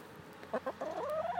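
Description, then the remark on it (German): Chickens cluck inside their enclosure, a couple of short clucks followed by a longer rising, drawn-out call, with no talking. “Ich werde jetzt höchstwahrscheinlich mal wieder eine Folge einfach im Hühnergehege drin machen.”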